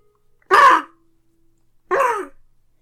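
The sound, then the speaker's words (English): A herring gull gives two loud, harsh squawking calls, each under half a second, about a second and a half apart, with silence around them and no talking. “these forms come together and shape into the image of a herring gull.”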